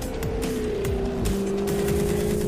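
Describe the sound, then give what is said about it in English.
A 575 horsepower supercharged V8 Jaguar F-Type R sports car engine roars loudly and continuously, its pitch shifting as it revs and sweeps past, with no voices over it. “Discover the powerful performance that makes driving a Jaguar like no other sports car in the world.”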